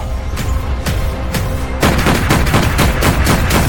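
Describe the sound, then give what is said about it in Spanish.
Several loud gunshots fired by a lookout into the water at a shark at night: a few spaced cracks at first, then a quicker, denser volley of shots that keeps going to the end, with no voices. “Justo entonces un vigía divisó al tiburón y disparó varios tiros al agua.”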